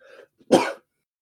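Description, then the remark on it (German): A single sneeze bursts out sharply, lasting under a second, after a faint, brief breathy intake; nothing else follows. “Gesundheit.”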